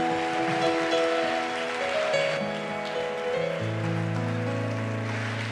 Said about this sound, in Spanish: Dale gracias al Señor y dale hoy un fuerte aplauso a su presencia, porque Él está en, tu presencia, porque está en esta casa de oración.